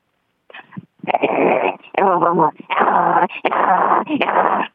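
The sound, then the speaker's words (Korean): A voice imitates an angry dog with a string of loud, rough growling and snarling bursts, harsh and throaty, broken by short pauses, with no other talk. “화난 강아지를 좀 할 수 있거든요.”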